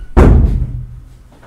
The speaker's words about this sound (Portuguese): Eu empurrando a porta ali, E era de puxar.